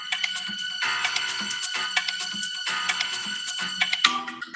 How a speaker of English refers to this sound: I don't know if that's original music. I don't remember.